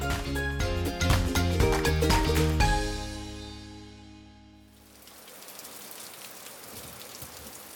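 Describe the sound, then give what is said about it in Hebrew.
A short musical phrase with chiming tones fades away, giving way to a steady, even hiss of the season's first rain falling, continuous and moderately loud, with no voices. “הגשם יורד. הגשם הראשון לעונה.”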